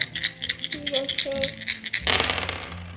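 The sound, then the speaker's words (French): Many dice clatter and rattle rapidly in small cupped hands, a busy stream of small clicks that grows denser and louder toward the end, with voices speaking briefly underneath, shaken for a throw in a board game about climbers ascending a mountain. “Beaucoup de dés pour des petites mains.”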